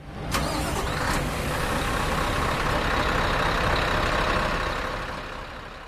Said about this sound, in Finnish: Kuorma-autot kuljettavat Koskenkorvan tehtaalle ohralasteja sisään.